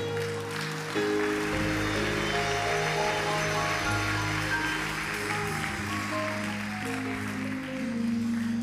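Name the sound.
audience applauding loudly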